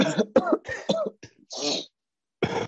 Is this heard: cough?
yes